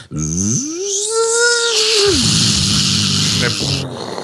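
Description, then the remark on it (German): A voice imitates an Apple notebook's cooling fan spinning up while running a demanding 3D screensaver: a rising hum climbs to a sustained whine, then gives way to a loud, breathy whooshing rush of air lasting a couple of seconds. “die Notebooks von Apple, die haben tatsächlich ein ganz blödes Problem und zwar, die fangen unglaublich schnell an, sich einen abzupusten”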